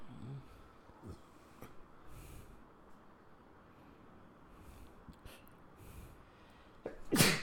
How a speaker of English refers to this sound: Bless you.